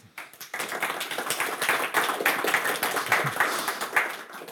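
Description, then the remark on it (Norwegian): Audience applause from a small crowd at a panel event on business policy in Bergen, welcoming a panelist, an associate professor of economics at NHH: a dense steady patter of many hands clapping that starts abruptly and continues for several seconds at moderate loudness, with no one talking. “Så kanskje jeg kan bare få begynne med å be om en applaus”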